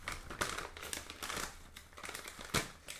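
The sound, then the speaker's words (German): Snacks are tipped into small bowls, giving a crinkly, rustling patter with several sharper clattering bursts at irregular intervals. The sound is fairly quiet, and no one talks. “Und wie ich sie in die Schälchen tue.”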